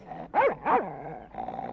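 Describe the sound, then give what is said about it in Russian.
A dog named Tups, on a chain, gives two loud, quick barks in succession, with a low, rough growl rumbling beneath them and continuing steadily after the barks stop. “Тише, Тупс! А, не ну, бойтесь, не бойтесь, дети. Он, он на цепи.”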